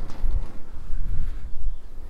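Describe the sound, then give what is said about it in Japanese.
Footsteps on an outdoor surface, a steady series of soft, low thuds, with faint background noise and no talking. “こうやって喋ってる時のこの足音とかそこに対してまあ、左側から例えば鳥の声が聞こえてくるとかすごい遠くから、まあ、なんか車の音が聞こえるとか”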